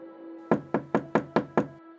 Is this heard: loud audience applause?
no